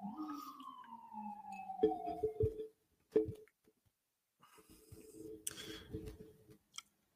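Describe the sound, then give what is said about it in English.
An emergency vehicle's siren outside wails, sliding downward in pitch for a couple of seconds as the vehicle passes, then cuts off, followed by scattered clicks, knocks and faint rattling noise. “the concept is simple, and as you may hear the siren, um, I do apologize about that,”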